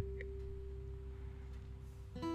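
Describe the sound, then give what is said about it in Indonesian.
A steady low rumble with a constant hum runs throughout, then a vehicle horn blares near the end, a loud, sustained honk. “Suara klakson kendaraan membuyarkan lamunanku dan terima kasih.”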